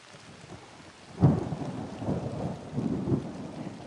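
Heavy rain hisses steadily while a sharp thunder crack hits, followed by low rolling rumbles that swell and fade over a few seconds; no voices are present.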